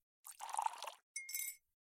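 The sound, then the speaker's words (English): A soft, gurgling pour of tea into a cup lasts under a second, then a brief ringing clink of china or glass follows. Both sounds are quiet, with no voices. “The kettle's boiled, Vic. Great. Perfect timing. Just a dash of milk for me, please, mate.”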